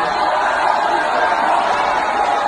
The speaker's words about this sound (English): They booing her.